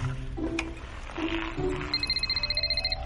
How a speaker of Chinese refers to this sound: 正说着，维达爷爷的电话突然响了。电话是尤利妈妈打来的，他们的马戏团火车遇到了严重的积雪，困在了路上。